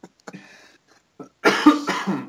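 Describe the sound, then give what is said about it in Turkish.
Someone chokes and coughs after water went down the wrong pipe: a few small, quiet coughs and sputters, then a loud, harsh burst of coughing to finish. No one speaks. “Dur pardon su genzime kaçtı.”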